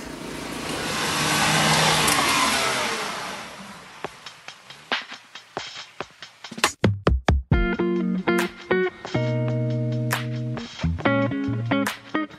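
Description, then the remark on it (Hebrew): A car roars as it pulls away on the streets of Bat Yam, its loud, rushing engine noise swelling and then fading over a few seconds. Sharp knocks follow, then a series of steady, tonal blasts. “אני מוריד חולצה ומתחפש לאחד הפורעים, יוצא לרחובות המסוכנים של בת ים, מגיע לרכב ובורח, חתיכת סיוט.”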